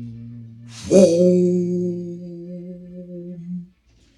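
A large bell tolls once for a Toll the Dead cantrip, a heavy strike followed by a deep, resonant ring that slowly fades over a few seconds above a low steady hum, with no voices.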